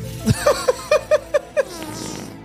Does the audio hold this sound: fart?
yes